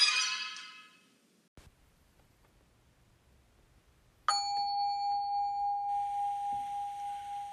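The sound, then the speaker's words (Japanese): A Buddhist altar bell (rin) is struck once after a brief rustle and a quiet pause, its clear metallic tone ringing on steadily with a gentle pulsing waver as it sustains. “本当はこれお坊さんしか鳴らさなくていいらしいよこの前テレビで見た見た今さらって感じそうよ今さらチンなしなんてね”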